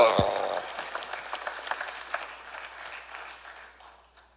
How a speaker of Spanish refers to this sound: Por lo menos las hermanas aplaudan.